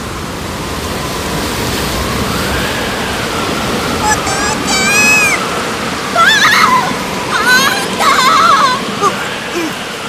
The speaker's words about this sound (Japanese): うわあますます激しくなってきたなどんなこの嵐じゃ